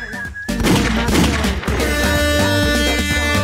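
A loud gunshot sound effect: a rapid fusillade of sharp cracks and thuds, fired in quick succession over a steady tonal, music-like background, with no pauses for its whole length.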